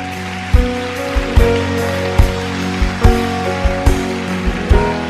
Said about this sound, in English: Let's give all these people a big round of applause.